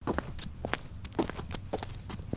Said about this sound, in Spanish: A su espalda, una sombra oscura se desliza con pisadas sigilosas